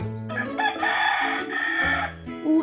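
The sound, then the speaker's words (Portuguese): A rooster crows once, loud, a long strained call that rises, holds and then breaks off, with faint lower tones before and after. “galo cantou. Ele veio avisar, está na hora da leitura.”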